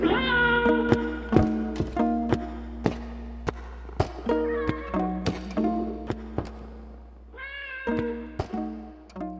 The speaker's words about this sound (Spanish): Se dio la vuelta y el sonido de su bastón se perdió en el fondo de un corredor oscuro mientras el compañero Gramsci daba vueltas alrededor suyo maullando.